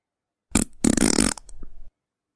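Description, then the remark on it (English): A short, loud fart sound effect: a brief initial burst, then a longer sputtering, raspy blast trailing into a quieter flutter, heard alone with no talking. “No, it's a morning fart.”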